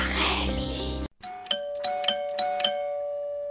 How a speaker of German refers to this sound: Nanu, wer klingelt denn um diese Uhrzeit bei uns?